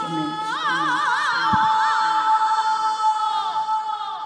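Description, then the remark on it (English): A large crowd of women roars and cheers with high-pitched whoops and sustained yells, loud, filling the space continuously for several seconds. “You're listening to the roar of the female humans.”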